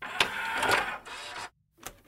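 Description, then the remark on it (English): A dot matrix printer screeches through a line of printing in dense, buzzing bursts, pauses briefly into silence, then starts a short new pass. Fairly loud, with no voices. “I fondly remember from the 1980s the scream of the dot matrix printer,”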